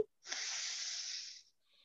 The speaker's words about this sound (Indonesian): Kita akan menarik nafas misalnya nanti dari hidung kiri, yang kanannya kita tutup nanti ya. Saya kasih lihat dulu ya sebelum tangannya di ini. Nanti tarik nafasnya dari kiri.